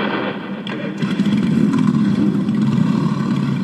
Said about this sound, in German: Entlang der Ludwig-Erhard-Straße sitzen Bikerinnen und Biker auf und lassen ihre Maschinen an. Die ersten setzen sich bereits in Bewegung.